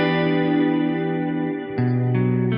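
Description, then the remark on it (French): Sustained chords ring out through a lush modulated Plate 140 plate reverb with a shimmering, chorus-like wobble, shifting to new chords twice near the end, with no voices. “Ça module et du coup, ça donne un petit effet un peu type chorus.”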